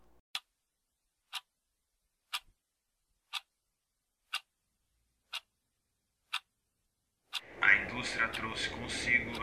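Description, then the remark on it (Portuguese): A clock ticks seven times at a steady one-per-second pace, each tick crisp and isolated against silence, before a louder, denser wash of sound takes over at the end. “tirania do relógio. A máquina que sinalizava o ritmo do trabalho e a complexa e cronometrada interação dos processos.”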